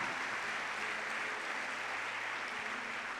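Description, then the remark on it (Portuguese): An audience applauds Jesus steadily, a dense wash of many hands clapping at once that holds at an even level for a few seconds without any voices on top. “Pode aplaudir a Jesus se você crê nessa palavra.”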